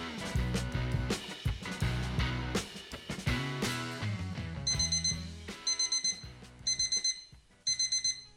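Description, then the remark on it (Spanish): An alarm clock rings at 7 in the morning in five short, regular bursts of shrill electronic beeping, cutting in over a musical intro that plays alone for the first few seconds. No one speaks. “El 17 de diciembre de 2022 el despertador sonó a las 7 de la mañana.”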